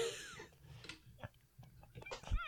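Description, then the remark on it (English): A person imitates a duck, letting out a rapid string of harsh, nasal quacks, the bursts coming in an agitated, uneven rhythm with no words spoken. “The duck quacked furiously.”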